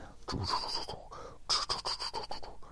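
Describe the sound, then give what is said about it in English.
A printer runs with a steady mechanical whir and scratchy, rasping strokes, briefly pausing then resuming in short repeated passes. Fairly loud, with no voices. “The only thing we're doing that is that printer's noisy.”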